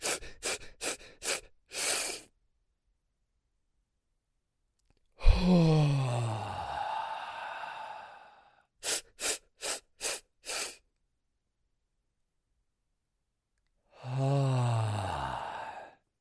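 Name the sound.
voice imitating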